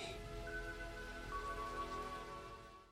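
Steady rain pours down in a continuous, close hiss, with faint sustained tones humming underneath. No one speaks, and the rain fades slightly at the end.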